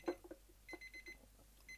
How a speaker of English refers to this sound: Okay, so that time's just about up, so I'm going to start pouring out the fix back into the jug. There we go, get that out, hopefully just as the timer goes off.